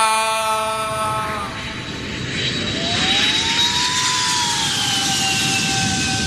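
A jet airplane roars past, its engine whine sliding down in pitch over a broad rushing rumble as it comes in to land. Loud and steady throughout, with no voices.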